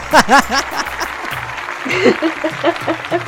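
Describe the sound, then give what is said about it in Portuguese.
A short burst of clapping mixed with lively laughter and voices, the claps forming a soft, steady patter beneath the louder laughing over a few seconds. “Palmas para ela.”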